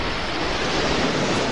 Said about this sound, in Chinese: 接二连三、汹涌而至的波涛不断地溢出围屏，终于，海水宛如瀑布一般从屏风中飞流直下。